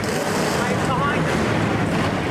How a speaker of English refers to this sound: A deafening roar. The fumes are billowing out from beneath these vehicles. Just ask our Paul Murnane. Where do you want to bring cars right off the NASCAR track with the engines, the exhaust, the noise? Times Square.